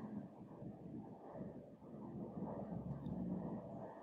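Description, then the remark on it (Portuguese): A helicopter drones steadily overhead, its low rumbling engine noise filling the background continuously without any speech. “Tem um helicóptero passando aqui.”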